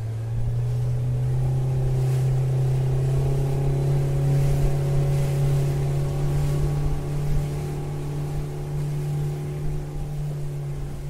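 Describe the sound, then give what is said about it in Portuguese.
A speedboat engine drones steadily and loudly as it races across a lake at high speed, with a constant low hum and a wash of rushing water, holding speed for the whole stretch without any voices. “Desse modo, procurar o silêncio é como guiar uma lancha num lago em alta velocidade em busca de um lugar calmo e sereno onde tudo é silencioso.”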